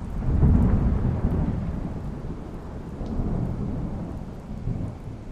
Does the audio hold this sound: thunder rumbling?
yes